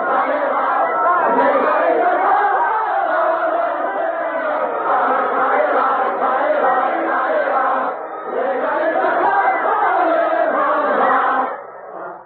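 A large crowd of paraders in the streets of Paris sings a rousing French revolutionary song, revolutionary words set to a French dance, about hanging all aristocrats from lanterns; many voices blend into a loud, steady chorus that briefly dips between phrases before surging again, with no one speaking over it.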